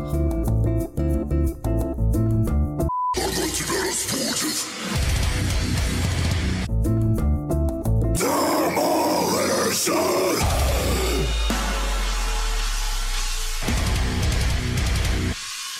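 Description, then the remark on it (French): A short elevator-music interlude plays with no talking, moving between steady, sustained tonal passages and busier, denser stretches, holding a fairly even loudness throughout its roughly sixteen seconds. “Aïe aïe aïe, suite à une coupure d'électricité involontaire de notre part, et oui, le PC est totalement parti en vrille, euh, nous allons reprendre après cette petite interlude musicale d'ascenseur.”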